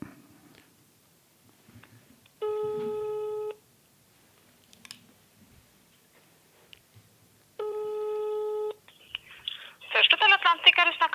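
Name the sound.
telephone ringback tone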